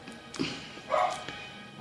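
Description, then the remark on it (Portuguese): A neighbours' dog barks twice, two short muffled yaps about half a second apart over a quiet background. “cachorro dos vizinhos.”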